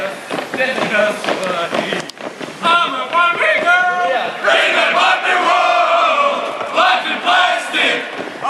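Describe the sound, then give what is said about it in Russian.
A large group of soldiers sings a pop hit loudly together in chorus while marching, their massed voices forming a dense, continuous wall of sound that swells and carries steadily throughout. “вот как наши солдаты маршируют и поют хит группы «Аква», «Барби Girl”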